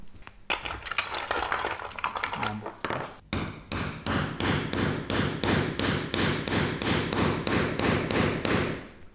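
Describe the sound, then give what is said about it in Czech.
Rapid, steady hammer strikes on a punch tool punching holes in leather for rivets, sharp metallic taps repeating in a fast even rhythm, loud, with a brief pause partway before the blows resume. “Tak právě máme tam nabouchané dírky na ty nýty a vložíme tam sponu a očko, provlíkneme nítky.”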